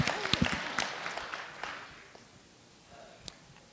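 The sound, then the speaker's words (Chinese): A burst of audience applause, called for by the host to encourage a questioner at a forum, many hands clapping in a dense crackling wash that swells at the start and then thins and fades away over a few seconds. “好，掌声鼓励一下”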